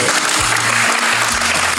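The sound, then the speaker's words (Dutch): A steady wash of clapping from a crowd, loud and continuous across the whole stretch, with a low hum shifting in pitch underneath. “Eh, jongens, applaus graag.”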